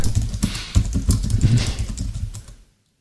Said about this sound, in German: Ich höre das, was du schreibst. Das erkennt man ja am Klang der Tasten.